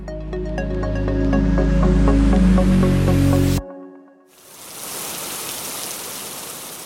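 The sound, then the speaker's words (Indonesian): A burst of tonal music cuts off abruptly, and after a brief silence a steady, dense hiss of heavy rain takes over, loud, continuing to the end. “Siang panas, sorenya hujan gede, paginya mendung, eh kesore lagi cerah.”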